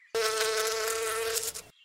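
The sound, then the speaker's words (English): A steady insect buzz drones loudly for about a second and a half, a sustained humming whine like bees buzzing, then cuts off abruptly. No voices. “But chances are, these safety issues will be worked out, and drones will soon buzz around like bees.”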